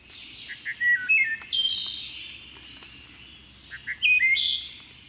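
thrush song

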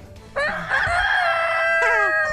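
rooster crowing sound effect

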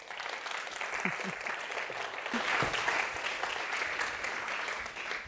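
audience applause

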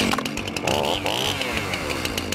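chainsaw revving

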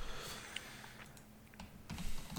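typing on a keyboard

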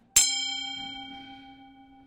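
singing bowl being struck

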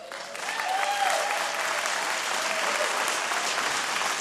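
audience clapping

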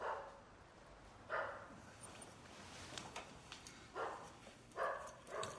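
dog barking

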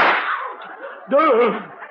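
gunshot sound effect

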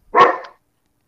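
dogs barking

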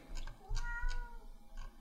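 cat meowing

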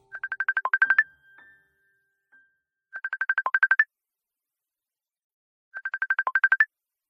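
mobile phone ringtone

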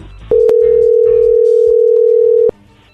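telephone ringing tone

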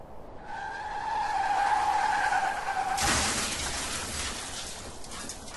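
car tires skidding

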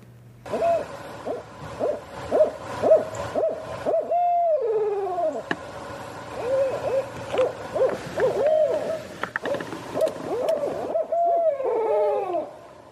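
barred owl hooting

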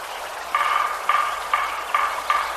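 woodpecker

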